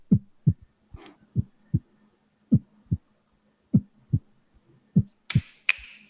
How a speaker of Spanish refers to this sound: Si te das cuenta, el corazón la mayoría del tiempo es ternario, ¿no? Toma sangre, expulsa sangre y descansa.